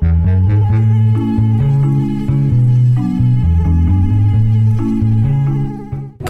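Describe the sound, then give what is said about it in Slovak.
A mosquito buzzes loudly and steadily, its whining drone wavering up and down in pitch for several seconds without a break, with no voices. “Homer je azda tým najnenávidenejším hmyzom na celej planete a vydáva ten najotravnejší zvuk.”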